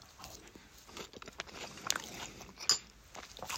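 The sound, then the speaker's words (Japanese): Crunching of someone biting and chewing a Japanese rice cracker (senbei), with several irregular crisp snaps over steady chewing and no talking. “せんべい食っててもいいんだよ”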